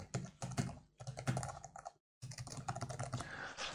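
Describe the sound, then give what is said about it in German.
Steady typing on a computer keyboard as an email address is entered into software, with rapid clustered keystrokes, a brief silent pause partway through, then the clicking resumes at a similar pace. “Und wenn ich jetzt hier eine E-Mail-Adresse eintrage”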